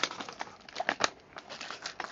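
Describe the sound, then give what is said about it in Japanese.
Crinkling, rustling packaging being handled, with irregular crackly bursts of paper or plastic as a mailed parcel holding the prize for winning the first Botsu Battle is opened, no voices present. “【開封収録】 第1回ボツバト優勝賞品”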